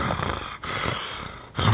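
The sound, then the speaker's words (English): A voice imitates a rough, nasal growl in two drawn-out bursts, fairly loud, with a brief pause between them and a sharper start to a third at the end. “Yeah, like he's like he's growling.”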